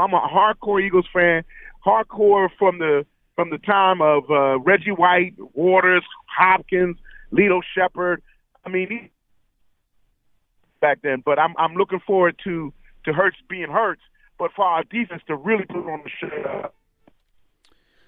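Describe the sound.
A man talks over a thin, narrow-band phone line; partway through, his voice cuts out for about two seconds before returning, with choppy gaps in the speech.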